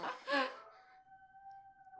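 A dog lets out a long, steady howl that holds one pitch for about a second, fairly quiet, right after a short burst of human voice.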